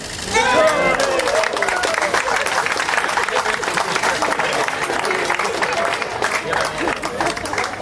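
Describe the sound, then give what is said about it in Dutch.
A large crowd claps and cheers continuously after a countdown and ribbon cutting at a park opening at the Efteling, a dense wash of applause with excited voices and whoops rising through it at the start. “Blijf klappen, blijf klappen.”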